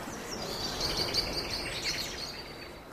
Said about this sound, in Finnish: Nyt on kauhea konsertti näillä linnulla menossa.